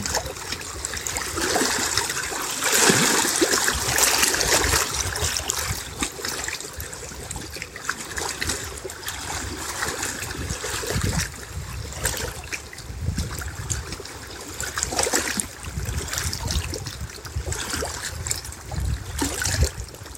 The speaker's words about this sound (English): feeling into the fluidity of water, feeling into the music of water.